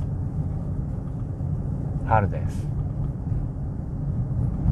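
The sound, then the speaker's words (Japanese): A steady, low rumble of engine and road noise fills the interior of a small black car driving on a hot day, broken briefly midway by a short spoken phrase. “黒は熱を吸収します今日は熱中症にお気をつけくださいということは私の口からは言えませんがそのぐらい小さな車の中はすぐにぬくもります”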